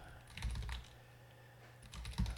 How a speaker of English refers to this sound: I'm just typing this out as I talk.